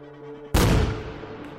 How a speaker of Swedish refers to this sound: Smällen blir enorm. Trycket från explosionen slungar honom fyra meter baklänges. Och en av de andra poliserna kastas över en fåtölj.